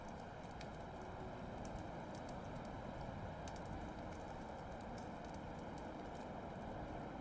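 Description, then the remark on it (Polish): Horse hooves clip-clop at an uneven pace against a dense, steady background hum, the sharp knocks fairly soft, as a small boy takes the mare to be groomed at an outpost. “Witajcie, witajcie, już konia biorę i oporządzę.”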